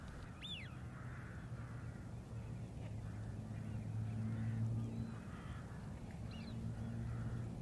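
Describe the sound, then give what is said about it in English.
A dense chorus of many rooks, black birds of the crow family, cawing over one another at a winter roost of thousands on Buckenham Marshes, marshland with reed beds: a continuous harsh clamour with occasional higher calls from a large flock against a steady low rumble. “I'm welcomed by a roost of rooks, a black feathered bird in the crow family, who gather here in the thousands during the winter months.”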